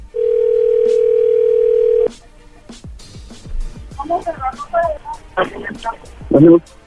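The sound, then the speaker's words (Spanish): A phone call is redialed: a steady, loud telephone dial tone holds for about two seconds, then cuts off into a run of short dialing clicks, followed by muffled voices over the line. “Ah, a marcar a ver si otra vez sí lo escucha.”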